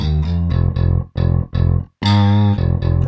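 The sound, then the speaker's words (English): A synthesized Digislap slap bass with a chorus effect added and turned up plays a loud, punchy run of short notes in a bouncy rhythm, then a brief pause and a longer, brighter sustained note, with no voices. “And actually, I put a bit of Thoris on our synthetic one. And then just turn it up a bit, sort of get your own sound Digislap.”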